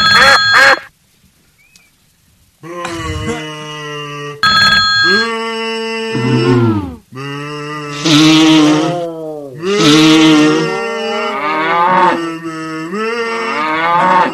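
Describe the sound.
An underwater greeting call to whales: loud, drawn-out moaning tones rich in harmonics, with pitches that bend and slide, repeated in several long phrases separated by brief pauses, no talking.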